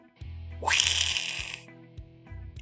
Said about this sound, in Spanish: ella sentada sobre él empezaron a besarse cuando por accidente ella baja la palanca del excusado y suena.